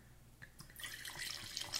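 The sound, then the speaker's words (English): Red Cabernet wine, 13.9% alcohol, pours from a bottle with a soft, steady splashing and a few irregular glugging pulses, fairly quiet, with no voices. “it's like go, go, go, go. That's a good pour.”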